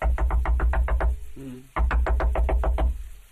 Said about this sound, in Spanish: Total, una, una noche el herrero es despertado en la madrugada por unos golpes frenéticos en la puerta.